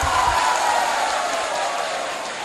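An audience applauds a gift donation totalling 152 million, of which actress Việt Trinh gave 100 million, a dense, steady wash of many hands clapping at once. It stays loud and even for a couple of seconds with no voices standing out.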